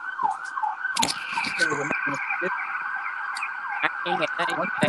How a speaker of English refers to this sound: I live up the oh. block from a hospital and around the corner from a fire station. It's nothing but sirens everywhere over here.